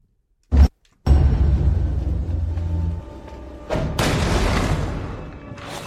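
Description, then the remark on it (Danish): A brief heavy thud, a pause, then a loud boom that rumbles on, followed by another crashing impact and a noisy, swelling roar: Japanese fighting sounds from the announcement trailer for the video game Trek to Yumi, with no voices. “kan høre, så er det en masse øh, japanske slagsmål.”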